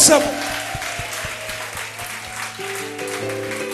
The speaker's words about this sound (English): If you believe it, clap your hands and exalt the name.